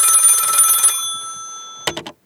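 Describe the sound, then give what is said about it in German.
A telephone bell rings loudly with a dense metallic trill, stops and decays, then three short quick rings burst out near the end. No one talks. “Telefon, ne? Klingt.”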